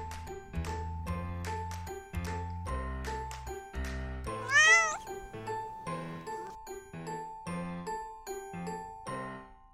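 A single cat meow rises and falls about halfway through, standing out over a bouncy, repeating musical tune with steady chiming notes.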